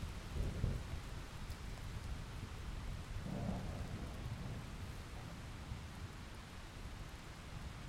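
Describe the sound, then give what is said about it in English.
Steady rain hisses throughout while thunder rumbles low and deep, with one burst near the start and another a few seconds later, rolling rather than sharply cracking. No one speaks. “My ears began to tingle, and I could feel the beating of my heart as if it had come to life between my temples and all it took was one loud falling crash of horrible thunder to make me cry out for her.”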